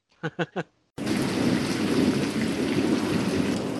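Three short voiced bursts, then a sudden, steady downpour of heavy rain with a deep, rumbling roar underneath, loud and close, continuing without a break.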